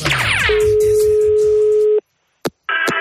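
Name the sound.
telephone ringing tone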